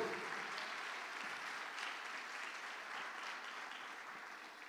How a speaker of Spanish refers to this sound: Dele palmas fuerte al Rey de la Gloria.